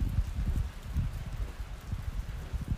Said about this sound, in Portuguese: Em uma só direção, como esta chuva,